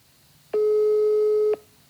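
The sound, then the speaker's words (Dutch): A single one-second burst of a steady telephone ringback tone on a call to a convent's general number, loud and clear, heard on the line with no voices, followed by quiet as the call goes unanswered. “Maar de telefoon blijft maar overgaan.”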